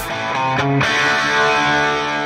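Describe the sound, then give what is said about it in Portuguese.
A brief, loud blast of rock music driven by heavily distorted electric guitar, with sustained, dense chords ringing out continuously for about two seconds and no voices. “Rock?”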